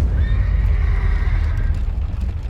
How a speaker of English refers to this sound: The horses charged by.